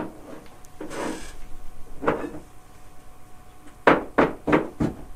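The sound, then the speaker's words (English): A young girl who has been learning the drums this week bangs on drums: a couple of scattered, uneven hits, then a quick burst of four louder beats, with no one talking. “My little girl's been learning the drums this week.”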